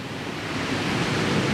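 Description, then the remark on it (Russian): Steady roar of sea surf in the Nenets tundra, a broad continuous wash of breaking waves that swells slightly louder toward the end, heard alone without voices. “Слышите, как море шумит?”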